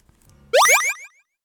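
Sampled water-drop sounds used as rhythm in a song with synthesizer and drum-machine beats: a quick run of four or five watery plops, each a bright rising bloop, tumbling close together and fading out, with no talking and only a faint low hum before them.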